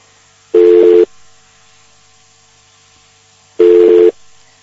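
Two loud, steady telephone busy-tone beeps on a dropped internet phone call, each about half a second long and separated by a few seconds of quiet line hiss, with no talking.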